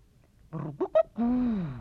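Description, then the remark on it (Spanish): A voice imitates a pigeon cooing as part of a game of animal sounds: a low warbling coo, two short rising notes, then a longer drawn-out coo that slowly falls, fairly loud, with no other talk. “harás la paloma”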